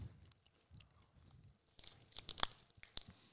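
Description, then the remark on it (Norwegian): People chewing food with a crunchy outer part, wet smacking and crunchy, tearing bites, irregular mouth sounds that grow louder and sharper toward the end, no talking. “Dette er eh, god radio, da, når vi sitter og smatter og tygger eh, ja, her også.”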